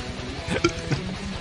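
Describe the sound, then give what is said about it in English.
A short, throaty burp pops out, followed a moment later by a smaller gulping hiccup-like blip; both are brief, with no talking. “Did you just burp on my podcast, bro?”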